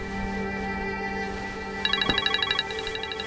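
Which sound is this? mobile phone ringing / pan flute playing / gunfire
mobile phone ringing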